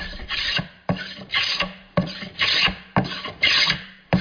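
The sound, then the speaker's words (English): A hand tool rasps steadily across wood in repeated strokes as wood is shaped for boat building, about four pairs of scraping passes, each a gritty burst, fairly loud with no talking. “What I find what's really neat about boat building is that hand tools, because you are dealing with shapes and curves, they're still the most practical way to get a job done.”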